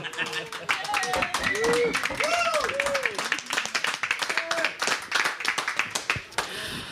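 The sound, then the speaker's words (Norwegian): A short burst of applause from a small group for the bands announced to play a concert afterwards, dense rapid claps throughout, with cheering voices and whoops rising and falling over the clapping. “Liten applaus for det.”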